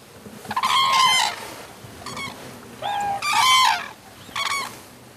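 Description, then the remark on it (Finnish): A flock of about two thousand cranes calls loudly in Korea on a cold day, with overlapping bugling, trumpet-like cries coming in four or five uneven bursts against a faint outdoor background. “Tänään kuulemma kurkia on paikalla suunnilleen pari tuhatta”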